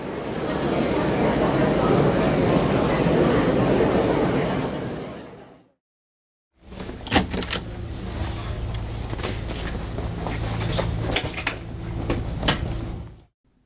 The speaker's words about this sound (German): So, das war gerade die Tür zu meiner Kabine. Ich bin in der 7096.